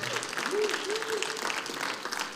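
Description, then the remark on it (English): An audience applauds a man being invited up to a platform, dense and steady clapping that stays loud for the whole couple of seconds, with a brief voice rising faintly over the noise. “Everybody clap”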